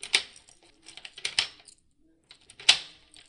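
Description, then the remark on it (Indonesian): A key works in a door lock: three sharp, bright metallic clicks a second or so apart, with faint rattling and scraping in between, and no voices. “Beberapa saat kemudian, terdengar suara kunci bergerak.”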